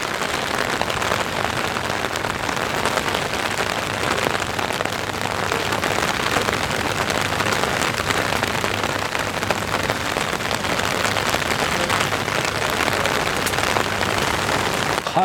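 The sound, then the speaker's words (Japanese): Heavy rain, growing stronger, pours down steadily, a dense, continuous hiss of countless drops striking surfaces, loud and unbroken for the whole stretch with no voices or pauses. “このなしか雨が強くなってまいりましたけどねね”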